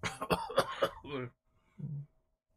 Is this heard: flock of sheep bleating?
no